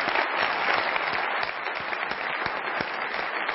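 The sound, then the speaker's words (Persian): Sustained applause from a seminar audience clapping for attendees who came from cities other than Tehran, a dense steady wash of many hands clapping throughout, loud and even with scattered sharper claps standing out. “کیا از شهرهای بغیر از تهران اومدن تو این برنامه تشویق بکنید این دوستان رو مرسی مرسی”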